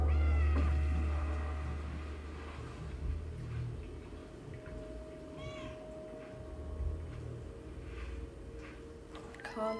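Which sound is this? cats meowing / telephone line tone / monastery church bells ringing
cats meowing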